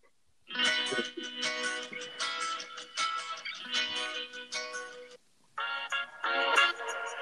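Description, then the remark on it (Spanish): A lively, upbeat song kicks in after a brief silence, with bright, busy instrumentation and a steady beat, pausing for a moment before returning at full volume. No one speaks. It is played on Radio Hormiga on a Friday as a staff request. “Hoy es viernes, toca algo movido y una petición del personal aquí de Radio Hormiga que suena algo así.”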